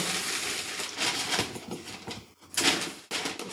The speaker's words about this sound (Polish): Natomiast z uwagi na to, że faktycznie to nie jest naturalne tworzywo, wracam do tych klasycznych foremek, czyli mam metalową foremkę i teraz będę ją wykładał papierem, papierem do pieczenia ciasta.